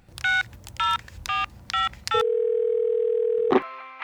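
Five short, evenly spaced touch-tone beeps of a phone being dialed, followed by a steady tone for over a second, then a click as the call connects. Clear, with no voices.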